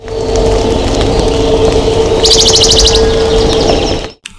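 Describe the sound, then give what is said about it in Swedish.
A Western Bonelli's warbler gives a short, dry, rapid trill of high notes, heard once and fairly faint over constant loud electronic hum and static from a radar station, with no talking. “det var en, en eh, bergsångare i datorn ett halvår för sent”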